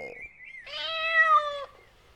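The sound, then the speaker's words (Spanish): The cat Panchito Cabrera gives one drawn-out meow, loud, lasting about a second with a bright, strained tone. A shorter, thinner mew comes just before it, and there is no talking. “¡Salud de gatito!”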